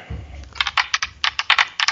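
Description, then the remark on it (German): Dice clatter across a hard surface in a quick, irregular burst of sharp clicks and taps, fairly loud, settling after about two seconds with no voices. “Ich würfel.”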